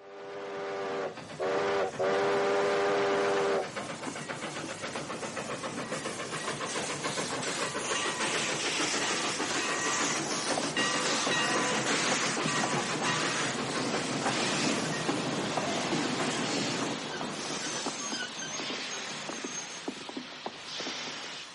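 A train rolls along the rails with loud, steady rattling and clanking, opening with a couple of bright whistle blasts before the continuous mechanical clatter carries on.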